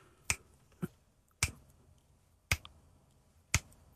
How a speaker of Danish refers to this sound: fordi hun knipser utrolig rytmisk og kontant. Men hun har også på, sit, øh, på sin venstre håndled iført sig et, et armbånd, som så reagerer og skifter farve med lysdioder i, ja.